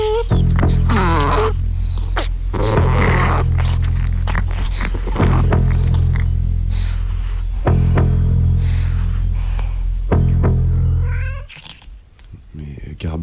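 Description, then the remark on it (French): A pet cat makes strange, drawn-out yowling and warbling cries, loud, in several long stretches with brief breaks before the sound drops away near the end. “Ouais, ouais, c'est mon chat.”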